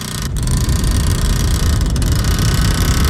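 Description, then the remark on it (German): The engine of bus number 361, heading toward Steppen, drones with a steady, loud rumble and a low vibrating hum. No voices are present. “So, jetzt bin ich im Bus, aber da ist es so heiß, ich verschmachte fast sein.”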